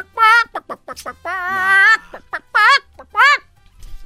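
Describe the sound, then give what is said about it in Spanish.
A voice imitates a chicken clucking: a series of short, loud clucks with one long warbling squawk in the middle, ending in a couple more clucks. “Pues una gallina no saben de dónde cruzó y llegó al Pentágono”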